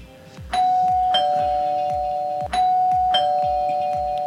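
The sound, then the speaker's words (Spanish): A doorbell at Allen Juvenal chimes ding-dong twice, each pair of bright tones ringing out and sustaining, with a low rhythmic thumping underneath and no voices. “Pero pues a ver, toca el timbre de, Allen Juvenal.”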